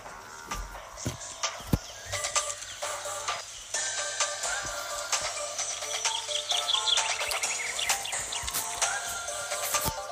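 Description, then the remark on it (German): Video game soundtrack music plays on its own, with bright chirping, bird-like tones layered over sustained high melodic notes and scattered percussive hits at a steady, moderate loudness. “Oh, hört ihr den Soundtrack?”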